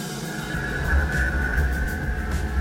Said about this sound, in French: Il verrouille les portes et paramètre le pilote automatique. Les électroaimants sifflent, le véhicule se soulève sur la chaussée d'acier.